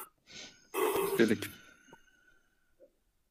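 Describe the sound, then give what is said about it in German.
A drawn-out yawn: a sharp breathy intake swells into a voiced, strained stretch, then trails off into a fading sigh, with a small click at the end. “Ja, man hört am Gähnen, ne?”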